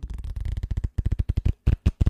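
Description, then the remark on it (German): Rapid flicking and riffling of a deck of playing cards being shuffled, a dense burst of crisp clicks that slows into separate snaps, with no voices. “Ich mische nochmal oder ich swipe nochmal durch die Karten und du kannst nochmal Stopp sagen.”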